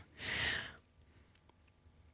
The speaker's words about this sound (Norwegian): Ikke puste inn mikrofonen. Mm, ikke jeg ha merker sånn... at jeg sånn- sitter og blåser inn mikrofonen. Ja, du gjør det.